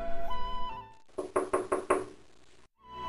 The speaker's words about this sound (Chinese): 如此急促的敲门声。一定是田大哥回来了。